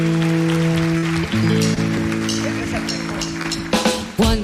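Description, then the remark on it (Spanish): An audience claps and applauds steadily throughout, a dense wash of clapping mixed with sustained musical tones, swelling briefly near the end. “Hasta la próxima, fuerte aplauso, adiós, adiós, adiós, adiós.”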